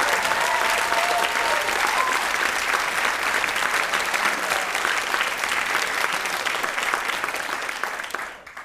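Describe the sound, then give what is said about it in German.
Loud, sustained applause from an audience for a question about street artists on a quiz show, a dense wash of clapping that holds steady for several seconds before tapering off at the end. “Eure Frage, euer Applaus.”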